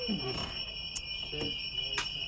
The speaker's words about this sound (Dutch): Ze zijn hier op de oude locatie van het politiebureau. En het alarm gaat af.